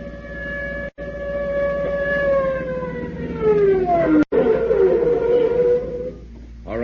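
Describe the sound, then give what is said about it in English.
A loud police car siren wails steadily close by as the car passes, its pitch sliding downward midway as it sweeps past, with no voices present. “Hey, that's a police siren. Sounds like they're almost on top of us.”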